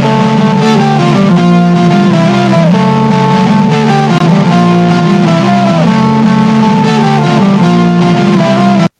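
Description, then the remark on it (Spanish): A singing voice drenched in echo, its long sustained notes smearing into one another and shifting pitch step by step, loud and continuous for the whole stretch with no talking. “Se oye bien chistoso cuando canto. Como un eco, no sé cómo, bien raro.”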